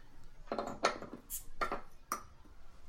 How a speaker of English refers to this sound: Um, so I'm gonna crack my beer here.